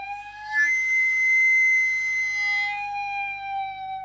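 A sweet potato vendor cart's steam whistle, a pipe like an organ pipe, releases pressurized steam from the cart's boiler, which cooks the sweet potatoes. It gives one long, steady, shrill tone at a constant pitch for about four seconds, heard alone without talk.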